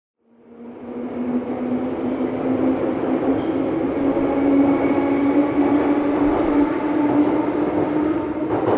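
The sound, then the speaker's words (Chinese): A subway train rumbles steadily after a quick fade-in, a continuous low roar with a sustained hum and faint rattling running through the whole stretch, with no voices. “凌晨五点零七分，首班地铁有些空荡”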